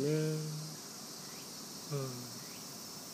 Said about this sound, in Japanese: あ今ここのセミはなんかあらゆるセミが鳴いてますけど